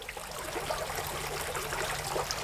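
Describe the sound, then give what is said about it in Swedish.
Water trickles and burbles steadily over a large diabase stone fountain in a health garden, a jet rising in the middle and water flowing out over the top, carved to form rings; a continuous gentle splashing with a faint low hum beneath and no voices. “Det du hör porla i bakgrunden är en, en stor sten i diabas när strålen kommer upp i mitten och vattnet flyter ut över ovansidan så är den huggen på ett sätt som gör att det blir ringar som då ska vara hjärtslagen.”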